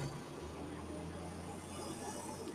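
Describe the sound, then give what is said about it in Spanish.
A truck's engine rumbles steadily in Panama City, a low droning hum with broad road noise on top, holding an even level throughout without fading in or out. “Esa es la intro, el sonido del camión, porque déjenme decirles que aquí hay unos carros que como suenan.”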